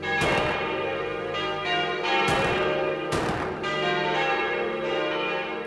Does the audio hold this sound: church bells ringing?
yes